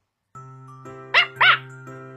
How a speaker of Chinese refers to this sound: 就在亚米绝望的时候，一声狗叫响了起来。